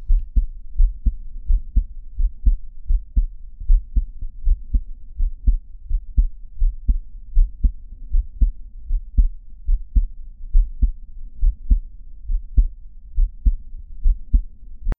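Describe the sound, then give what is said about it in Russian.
Stethoscope recording of a heart: steady, low thumping beats in a regular rhythm throughout. There is no murmur at first, then a brief, very quiet mitral valve prolapse murmur slips in starting with the fourth cardiac cycle. No voices. “При начале а аускультации шума нет. Шум появляется на короткое время, начиная с четвертого сердечного цикла.”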